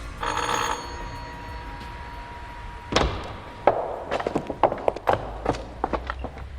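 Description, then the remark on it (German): A doorbell at the door of the house at 17 Lear Road is pressed and rings in a short, bright, buzzing burst at the start, then fades into a faint steady hum before a run of sharp, irregular taps like footsteps. No one speaks. “Ohne zu zögern drückte der erste Detektiv auf die Klingel.”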